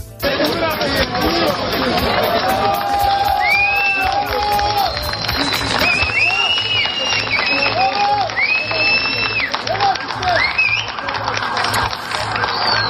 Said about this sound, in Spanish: Los equipos van sacando más cadáveres que supervivientes ya, y por eso cuando se encuentran con una vida, los aplausos rompen el silencio del rescate.